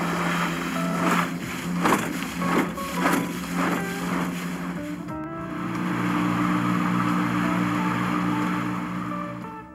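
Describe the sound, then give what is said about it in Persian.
A steady ship's engine drone with a rhythmic knocking clatter, repeated thumps in the first half before settling into a continuous hum, fairly loud with no voices, aboard a ship returning from Europe. “هشت روز تمام داشت به تلق و طلوق موتور کشتی گوش میداد این صدای ریتمیک رفت تو مخش و شروع کرد با ریتم شعر گفتن”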